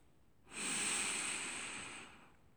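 A single long, heavy breath from a man lying face down on a bed, a broad airy rush with a hissy edge lasting about two seconds before tapering off. No one speaks.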